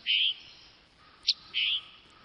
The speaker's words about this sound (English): Other birds, like this tanager, have adapted within the same species. The tanager on the east coast of the United States, where the forests are a little denser, has one kind of call and the Tanager on the other side, on the west,